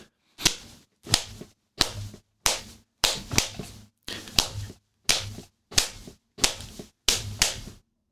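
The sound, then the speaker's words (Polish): A familiar song rhythm tapped out alone with sharp, loud slapping hits, repeating a steady pattern of about a dozen beats over eight seconds, with no voices. “Zobaczcie, że możemy rozpoznać jeden z utworów, e, wystukując tylko rytm.”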